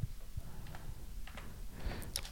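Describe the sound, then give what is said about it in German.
A quick series of soft clicks of keys being tapped on a computer keyboard as someone types something into a computer, irregularly spaced over a low background hum, not very loud. “Jetzt, jetzt klickst, jetzt gibst du es ein irgendwo in deinen Computer, an die wollte, Tasten, ne? Das hört man jetzt. Klick, es klickt”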